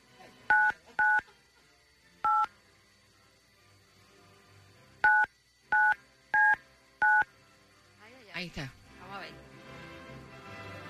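telephone touch-tone dialing

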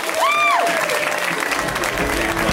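audience applause

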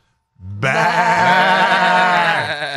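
goat bleating

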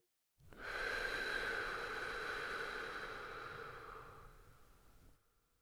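exhaling breath

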